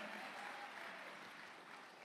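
A church audience applauds a preaching pastor steadily for a couple of seconds, a dense wash of many hands clapping at once at a moderate, even volume, with no voices standing out.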